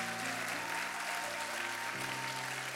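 A large crowd claps steadily and loudly for a few seconds in applause for God during a sermon, a dense wash of applause with sustained keyboard-like musical tones humming underneath.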